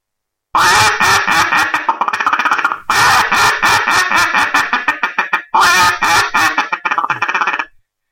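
A mallard duck hunting call blown in loud, rapid bursts of raspy quacks, three long sequences with brief pauses between, clear with no talking.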